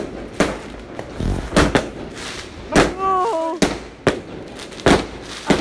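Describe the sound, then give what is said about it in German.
A firework battery fires off a rapid series of sharp, loud bangs in irregular bursts, with a brief whistling rise in the middle and a startled voice exclaiming. “Ach du Scheiße, Batterie.”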